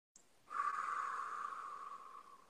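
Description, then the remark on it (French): One long, deep breath: a brief airy hiss, then a steady, breathy rush of air that swells quickly and slowly fades over about two seconds. No one speaks. “Alors, une respiration.”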